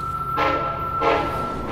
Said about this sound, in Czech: Vlak zastavil v Čelákovicích.